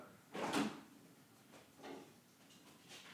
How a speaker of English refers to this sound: Now I walk back to the fridge, I'm going to put my glass down on the counter gonna open the fridge real fast and grab that can of soda.